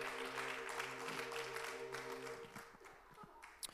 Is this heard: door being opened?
no